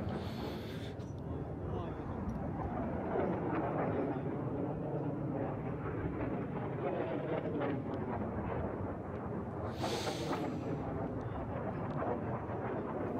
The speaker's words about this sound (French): c'est le missile HIMARS développé par les Américains. On va voir une vidéo de salve de tir de 18 missiles. J'aimerais votre réaction. Donc là, ça pleut.